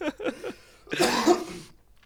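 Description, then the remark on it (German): A harsh coughing fit from a cough lingering after Covid, a rough burst lasting under a second, preceded by a few short voiced sounds. No one speaks. “Oh, ich um, habe ähm, immer noch das Husten vom Covid.”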